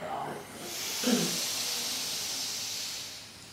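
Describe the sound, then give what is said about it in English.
A long, airy breath drawn in steadily for about three seconds before chanting Om, a soft hiss after a brief murmur of voice at the start. “Exhale your breath and inhale”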